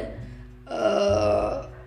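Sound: voice imitating a burp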